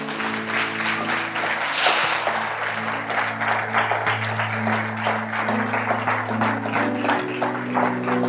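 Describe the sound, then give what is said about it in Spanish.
A church audience applauds steadily, giving applause to God for a group of people who have come to the front for prayer, a dense crackle of many hands clapping, over sustained low organ or keyboard tones that hold and shift underneath. “¿Por qué no le damos un aplauso a Dios por este hermoso grupo?”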